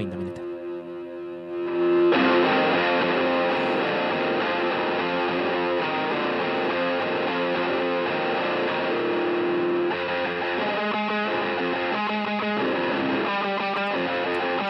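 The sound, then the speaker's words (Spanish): An electric guitar played through an SD1 overdrive pedal, with a clean-ish intro giving way at two seconds to a loud, thick, saturated distorted tone, later breaking into choppy rhythmic strums. “Para aquellos que nos están escuchando, es el típico pedal de voz. No sé si es el de Distortion o. El, SD1 es.”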